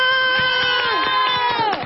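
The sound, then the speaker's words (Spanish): A loud crowd cheers and screams with sustained, high-pitched voices while rhythmic clapping pulses steadily underneath; the shouting swells and then drops in pitch near the end. “Un aplauso para ella. Y un aplauso para Luisa.”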